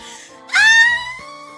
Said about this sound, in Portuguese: Isso! Esse grito bem gritado